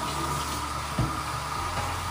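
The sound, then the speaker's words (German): Water pours steadily into a container, a continuous splashing rush that holds an even level throughout, with a brief low thump near the middle. No one speaks. “ich würde dann noch Wasser reintun.”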